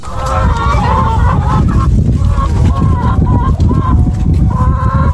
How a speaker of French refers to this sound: allons voir les poules. Et eh oui, à la ferme de Piamo, située à Genet, on trouve de tout. 220 poules pondeuses, des céréales, des lentilles ou encore des pâtes.